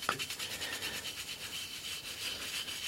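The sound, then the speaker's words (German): Steady, rhythmic scrubbing of a garden gnome with a small toothbrush at a garden gnome repair clinic, a fast repeated bristly rasp with a brief click at the start, continuing evenly without any talking. “mit dem Zahnbürstchen, oder? Da geht noch viel weg.”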